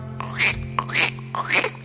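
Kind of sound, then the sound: bird, goose honking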